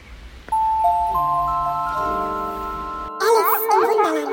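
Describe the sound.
A short jingle, the Alice jingle, opens with a series of bright chime tones struck one after another, each ringing on and layering together, before a singing voice takes over loudly for the final second.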